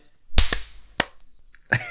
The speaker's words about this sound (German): Wir können ja nochmal alle klatschen ganz laut. Das ist eine gute Idee.